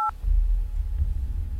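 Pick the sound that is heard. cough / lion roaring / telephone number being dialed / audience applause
telephone number being dialed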